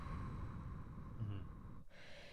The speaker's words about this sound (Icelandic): ég þarf bara að fókusa á að anda út anda út, anda rólega